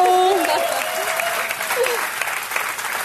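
Steady audience applause fills the whole stretch, a dense crackle of many hands clapping at an even loudness, with a few faint tonal whoops or whistles riding over it near the start.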